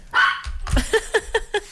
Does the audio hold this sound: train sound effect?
no